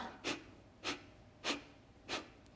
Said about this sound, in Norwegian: Kapalbati, den hvor vi trekker magen raskt inn og puster ut på denne måten ut gjennom nesa.